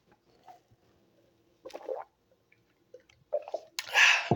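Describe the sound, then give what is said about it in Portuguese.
Someone drinks a glass of water: a few quiet wet gulps and swallowing sounds, then a loud, breathy exhale at the end. No one speaks. “Então vou beber uma água e depois vamos ler uma matériazinha, tá?”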